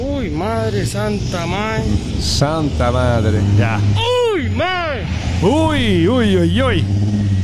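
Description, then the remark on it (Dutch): A fire engine revs its motor on its way to a crashed DHL plane that broke in two, a steady, loud low rumble running the whole time beneath a voice exclaiming and crying out in drawn-out, rising and falling tones. “Dat geluid wat je hoort is trouwens de brandweer die gas geeft.”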